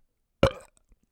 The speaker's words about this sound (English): Maybe I'll just leave that in. I was going to cut out my burp, but I kind of feel that way right now.